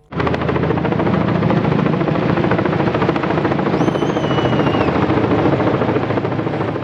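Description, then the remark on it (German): A helicopter roars overhead, its loud rotor chop pulsing steadily with a deep engine drone and a brief high whine rising and falling midway, as it flies in carrying a 20-metre, roughly 4.5-tonne Christmas fir tree over the monastery grounds in St. Gallen on a cold afternoon. “wo der Helikopter mit den Tannen über dem Gelände vom Kloster St. Gallen einfliegt.”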